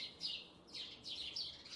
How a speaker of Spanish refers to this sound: ay disculpen, estoy en el pinche patio, aquí unos, hay unos pájaros peleándose en el árbol, de su chingada madre.